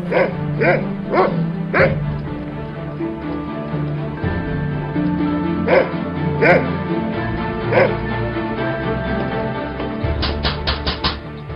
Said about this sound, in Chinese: 养在别墅里的狗会莫名的狂叫起来。